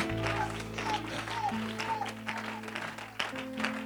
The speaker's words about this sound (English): Oh, clap your hands, all ye people and shout unto God with a voice of triumph. clap your hands with understanding that at the end of the day, I will come out on top.